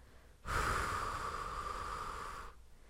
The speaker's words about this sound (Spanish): Haz la prueba. Toma aire inflando tu barriga. Y ahora simplemente deja salir aire, sin sonido, y pon la mano en tu barriga.